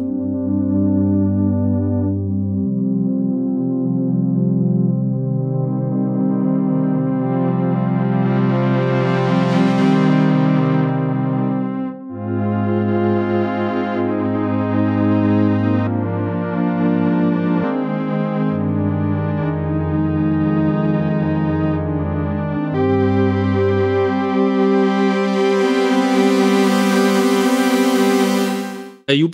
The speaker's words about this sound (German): Aber bevor wir weiter mit dem Jupiter 8 machen, hören wir jetzt noch ein Soundbeispiel vom Profit 5 und zwar so ein typisches Pad.